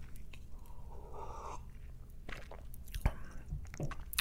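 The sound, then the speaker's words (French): A small sip of inexpensive JP Weiser whisky: quiet wet mouth sounds, a soft slurp and swallow, with a few faint clicks and no talking. “je vais prendre une petite gorgée de mon whisky.”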